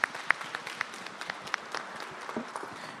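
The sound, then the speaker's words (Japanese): An audience at a Japan Real Estate Investment Corporation IR presentation applauding after the talk by the president of Japan Real Estate Asset Management: a dense, steady patter of many hands clapping, with a few sharper individual claps standing out. Moderate in volume, with no one speaking over it. “ここまではジャパンリアルエステート投資法人 IR プレゼンジャパンリアルエステートアセットマネジメント株式会社代表取締役社長片山宏さんでしたどうもありがとうございました拍手お願いいたします”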